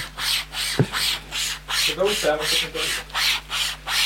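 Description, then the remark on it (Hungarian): A handsaw rasps back and forth through wood in about eight steady, even strokes, fairly loud, producing a lot of sawdust, with a brief murmur of a voice partway through. “Ez tényleg egy lányba való favágás és felmosás.”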